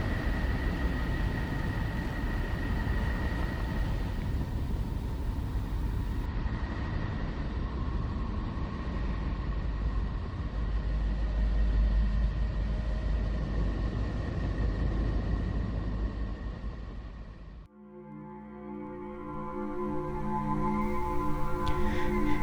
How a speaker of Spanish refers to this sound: Esto que ustedes están escuchando es Neptuno.